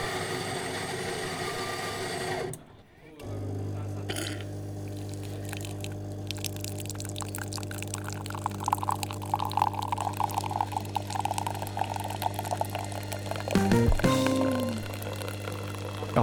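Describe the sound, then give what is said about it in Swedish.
A coffee machine hums steadily with a low motor drone while liquid pours and trickles in a continuous stream, with a brief pause near the start and some clicking toward the end; no one speaks. “Jag börjar bli fikasugen och jag ser att det står en kaffemaskin här bakom också.”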